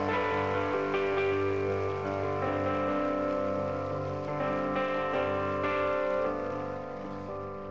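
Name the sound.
audience applause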